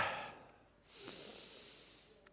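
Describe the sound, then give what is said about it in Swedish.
A single long, airy deep breath drawn in, a steady hiss lasting over a second, preceded by a short, breathy rush of air. No talking. “Andas djupt.”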